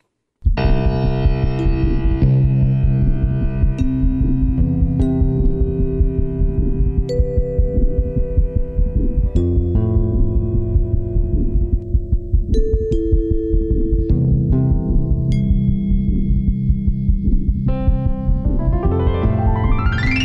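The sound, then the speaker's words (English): A steady, loud piece of music in the key of C plays for the whole stretch, with strummed guitar chords underneath and bright, ringing xylophone notes struck now and then over the top. No one speaks. “And playing in the key of C on the guitar is fun, as well as uh, the xylophone.”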